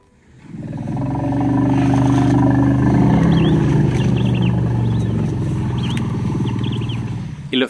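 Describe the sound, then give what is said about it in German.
Deep, sustained elephant rumbles throb loudly for several seconds, layered and resonant, with faint higher chirps and calls flickering above them, as elephants communicate with one another. “Was bei Menschen und Elefanten auch ganz ähnlich ist, sie kommunizieren miteinander.”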